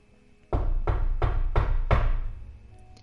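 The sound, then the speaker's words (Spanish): Five firm, evenly spaced knocks on a door, loud with a heavy wooden thud, then a brief lingering resonance before quiet. No voices are heard. “Y ella recuerda que a las 5 de la mañana, un poquito antes, llegaron los nazis a tocar a su puerta.”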